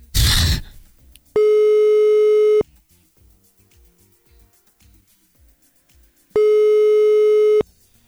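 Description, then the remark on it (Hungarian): A telephone ringback tone of an outgoing call placed during a live radio broadcast purrs twice, each steady tone lasting about a second with a long pause between, loud over a quiet line, after a brief burst of noise at the start. “Csak azért csörögtünk, hogy tessék nekünk mondani bármit.”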